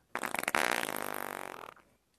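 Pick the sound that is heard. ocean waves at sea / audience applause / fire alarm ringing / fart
fart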